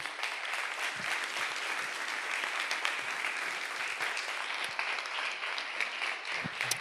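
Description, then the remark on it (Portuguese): An audience applauds God steadily for several seconds after a prayer, a dense, continuous wash of many hands clapping at an even level with no talking over it. “Vamos aplaudir o nosso Deus.”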